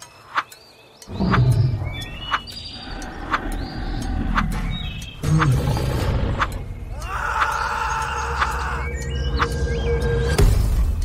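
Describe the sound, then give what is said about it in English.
A grizzly bear roars and growls in deep, rumbling bursts, loud and nearly continuous after a brief quiet start, with rough snarling and a few higher strained cries woven in. “You make your way through the jungle and notice a grizzly bear nearby.”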